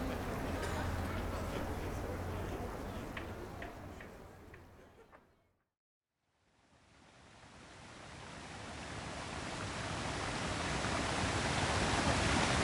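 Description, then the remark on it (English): A rushing waterfall in a video game, with a cave behind it, roars as a dense, steady wash of noise, fades to brief silence midway, then swells back in and holds loud. “The cave is behind the waterfall.”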